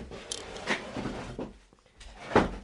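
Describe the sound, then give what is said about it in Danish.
A gaming chair is shifted and swapped out for another chair, giving a few scattered knocks, clunks and brief scraping rustles, with a sharper bump near the end and no talking. “så jeg er nødt til at sige, jeg skifter lige gamerstolen ud.”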